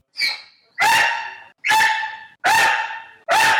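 A dog barks five times in a steady, evenly spaced rhythm, each bark loud and sharp, with no voices around it.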